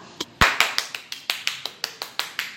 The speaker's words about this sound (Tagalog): Yay! Palakpak ng tao. Woo! Kaya hindi ho tayo mahilig sa palakpakan sa church.